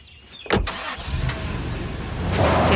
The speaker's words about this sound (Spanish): conductor se va en un todoterreno negro.